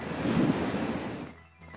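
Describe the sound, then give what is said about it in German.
A steady, broad rush of ocean surf washes loudly for about a second before quickly fading away, with no voices present. “Übrigens, perfekte Surfwellen halten sich nicht an Uhrzeiten.”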